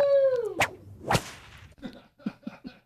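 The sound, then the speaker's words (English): A whip sound effect: a descending whistling swish snaps into a sharp crack, then a second, louder crack follows, trailing off into a few faint, rapid clicks. “Wait, cracking the whip already.”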